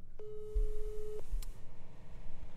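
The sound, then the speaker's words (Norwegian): One steady telephone ringing tone on an outgoing call sounds for about a second, clear against a low background hum, followed by silence and a brief faint click. “Ingen planer om å ta telefonen når jeg ringer, antagelig.”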